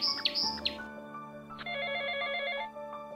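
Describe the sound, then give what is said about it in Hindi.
A phone rings with a bright, warbling electronic ringtone: a short chirpy burst first, then a longer sustained trill after a brief pause. It's clear, with no talking. The call is from the speaker's mother. “अच्छा एक मिनट रुको माँ का फोन है”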